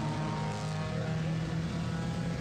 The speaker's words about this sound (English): But listen to the contrast of the sound of this car.